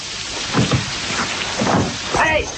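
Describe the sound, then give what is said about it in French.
Steady, pouring rain hisses across the whole stretch outside a college as the King of France passes, a dense, even wash of falling water, while muffled voices speak underneath it. “Hélas, Majesté, aujourd'hui, Phébus est tourné en pluie.”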